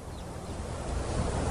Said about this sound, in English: Above the sounds of the wind, and he stood there listening to the bells.